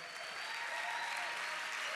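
An audience claps steadily in applause for two visiting pastors, one from Girona, Spain, and one from the United States, a dense, continuous wash of many hands beating together at an even loudness throughout, with no voices standing out.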